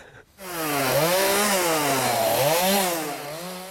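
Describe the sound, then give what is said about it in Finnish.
A chainsaw runs loud for several seconds during forestry work, its engine whine rising and falling as the throttle revs up and eases off, with no talking. “Antaa vaan sahan laulaa.”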